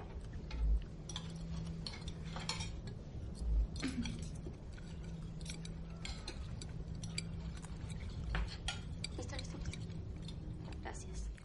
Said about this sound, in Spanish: Muy serio, mira a su padre, coge los cubiertos y comienza a comer.